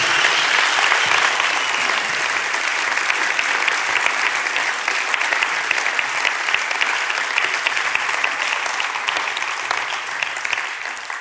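A big, sustained round of applause from a crowd thanking helpers who are setting up outside, dense steady clapping that stays loud for about eleven seconds and tapers slightly at the end, with no voices standing out.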